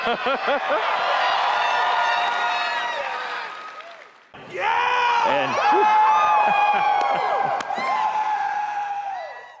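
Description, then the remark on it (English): A large conference crowd cheers and shouts loudly at news of NPCs coming to Fallout 76, many voices overlapping in a sustained roar that fades briefly before surging again into a second, equally loud burst of whoops and yells. “They're getting NPCs, which people went nuts for, and dialogue trees the crowd in that conference were just fucking unbelievable.”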